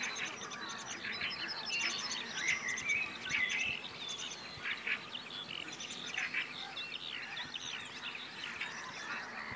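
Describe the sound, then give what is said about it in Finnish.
A black-headed gull that has just woken up calls amid a busy outdoor bird chorus, its harsh cries mixing with steady chirps and trills from other birds, with no talking. “Naurulokki on herännyt.”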